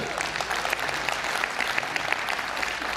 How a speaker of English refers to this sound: Man, our church is growing, it is healthy. Every week people are getting saved. Come on, that's a good thing to clap for.